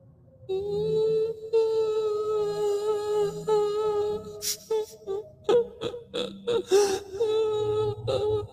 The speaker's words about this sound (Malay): Suara yang menangis tu macam mendayu-dayu je dekat belakang Kak Ros ni. Ha? Mendayu-dayu dari belakang Kak Ros ni melintas ke kiri, ke kanan, ke kiri, ke kanan. Lepas tu dia diam.